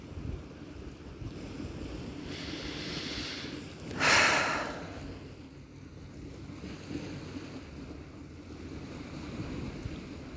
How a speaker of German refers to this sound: Ich hoffe, ihr könnt das Treiben des Meeres auf diesem Podcast hier hören. Es ist wunderschön. Wunder, wunderschön.